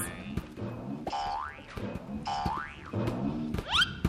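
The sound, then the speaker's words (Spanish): Cartoon boing effects of bouncing balls repeat, springy tones that swoop upward in pitch, about three bounces in quick succession, loud over a busy musical background with no talking. “Parecía parque de diversiones había columpios, resbaladillas largas, largas, y del cielo llovían pelotas rebotinas.”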